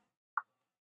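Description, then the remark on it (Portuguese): A single dry, sharp click of joint crepitus in a patient, like bone knocking on bone, crisp against near silence. “Parece osso batendo com osso.”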